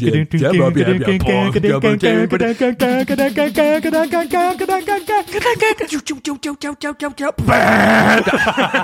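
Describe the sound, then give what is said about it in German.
A voice imitates the foghorn blast heard after the build-up and drop in music, a long, wavering, droning bleat-like blare held for several seconds with shifting pitch, ending in a brief noisy burst. “Immer das Nebelhorn.”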